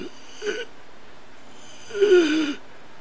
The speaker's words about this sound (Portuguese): Vocês ouvem a respiração do …, uma respiração meio